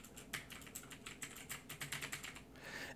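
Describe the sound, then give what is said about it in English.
Rapid, clacky keystrokes on a computer keyboard, a steady run of sharp clicks with uneven rhythm, no voices present. “man i love how clacky my keyboard is”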